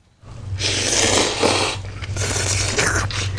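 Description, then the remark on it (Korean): Loud, wet slurping of noodles (guksu, 'myeonchigi') in two long drawn-out pulls, the second broken into shorter sucking bursts, with a low steady hum underneath and no talking. “아, 면치기.”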